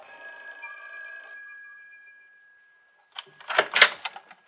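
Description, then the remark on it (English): The doorbell of Professor Jarman's house, just off a college campus, rings once on a September evening with a bright, sustained metallic tone that fades over a couple of seconds; after a short silence comes a brief burst of clattering, rattling noise. “But it was his daughter Elaine that I was interested in that evening in September when I rang their bell.”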